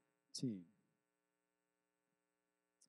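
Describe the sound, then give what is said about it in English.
A steady low electrical hum drones faintly throughout, with a short voiced sound near the start and a soft click later, otherwise quiet. “you guys hearing that hum?”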